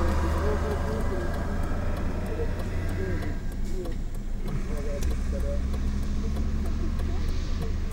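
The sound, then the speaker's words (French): A car engine idles with a steady, low rumbling hum that runs through the whole stretch, while people talk over it. “c'est à qui la voiture C'est à vous là Il y a le chauffeur de la voiture là”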